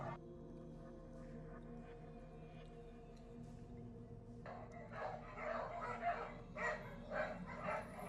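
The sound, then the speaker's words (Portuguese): Several dogs bark repeatedly at a prison over a steady low hum, the barking growing busier and louder in the second half. “Na hora que ele passa por essa porta, você já até escuta o os cachorros latindo já.”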